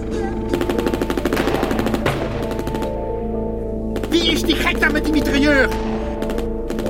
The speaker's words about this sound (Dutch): Staan staan elkaar daar gewoon af te knallen. Hier het hoofdbureau. Er wordt melding gemaakt van schoten bij het douaneterrein.